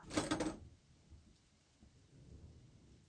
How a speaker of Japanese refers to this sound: この雨は、まだ続きそうだな。